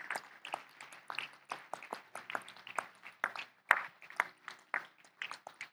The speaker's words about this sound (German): Lass uns den Leuten, es waren wirklich einige, die das gebetet haben, lass uns denen einfach mal einen Applaus geben, weil ich glaube, das ist.